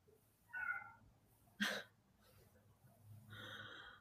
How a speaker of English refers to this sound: Oh God! Do you, do you hear this cat? He sounds like he's dying.